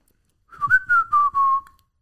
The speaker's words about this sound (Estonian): olen proovinud vilistada, aga ei lähe.